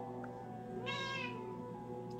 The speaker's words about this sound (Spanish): Hola, nuestro gato nos está saludando.